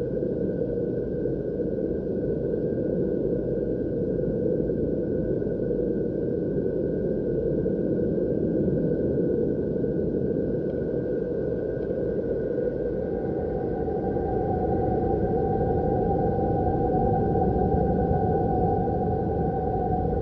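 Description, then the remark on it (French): A recording of the planet Saturn: a steady, eerie drone of dense low rumbling with a thin sustained whistle-like tone above it, unbroken and unchanging in loudness for the whole stretch, no voices. “Autre son, autre planète, silence, Saturne.”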